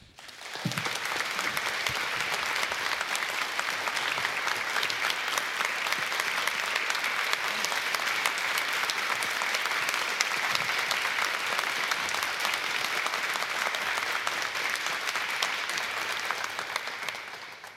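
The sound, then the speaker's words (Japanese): A large audience claps continuously for the whole stretch, a dense, steady roar of hand claps that stays loud and even from start to finish, with no talking. “久々にやまない拍手っていうのを聞いた”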